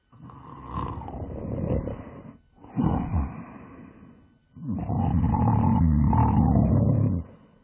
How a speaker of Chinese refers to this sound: 他一进家门就倒在床上大睡起来，那呼噜声比打雷还要响，把大家吓得都从被子里爬出来。